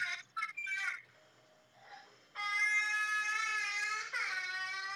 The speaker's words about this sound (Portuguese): Ah, oh, a menina tá chorando.